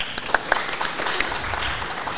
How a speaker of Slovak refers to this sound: Pekne pripravené, to si zaslúži potlesk. Ďakujem.